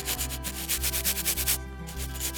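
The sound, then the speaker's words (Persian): An eraser rubs back and forth on paper in quick, repeated strokes, a soft rhythmic scratching with a brief pause near the middle, heard alone over a low steady hum. “پاک کن یکی از وسیله های باحال تو مدرسه میتونی هر چیزی رو که دوست داری پاک کنی و دوباره بنویسی میتونی هم همینجوری علکی پاک کنی”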